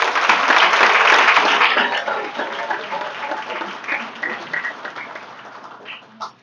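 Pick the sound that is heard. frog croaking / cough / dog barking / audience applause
audience applause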